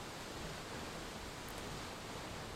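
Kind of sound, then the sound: nature, waterfall rushing water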